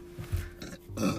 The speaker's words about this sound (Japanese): ああすごいゲップ出ちゃったもうやだちょっとすごい何これ